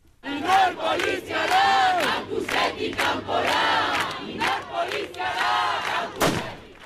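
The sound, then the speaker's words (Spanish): More than a hundred students chant slogans in unison at a demonstration from the Las Nieves lecture building on the Álava university campus, loud rhythmic shouted bursts repeating one after another, with a few sharp bangs or claps cutting through near the end. “Más de un centenar de estudiantes han salido a la una y cuarto del aulario de las Nieves en una manifestación bajo el lema Policia Universitate Tatic Campora EHU Errudun, una manifestación para denunciar el desalojo”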